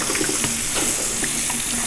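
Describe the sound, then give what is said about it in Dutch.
Running water from a kitchen tap splashes steadily over tomatoes and chicory held beneath it, a continuous rushing with small irregular spatters as the produce is rinsed over the sink. “De tomaten wassen, de, de lof wassen. Eigenlijk is het gewoon een beetje schoelen boven de wasbak.”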